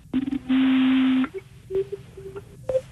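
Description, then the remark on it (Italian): A string of thin, pure whistling tones filtered out of sung vowels: one longer held note, then several short isolated whistles at shifting pitches, clear with no voice. “E adesso sentirete i fischi che ci sono dentro.”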